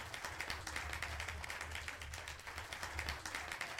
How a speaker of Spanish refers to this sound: Los aplausos desbordaron el auditorio. Con tal ovación, el público de pie lanzaba gritos de júbilo y felicitaciones para el pianista.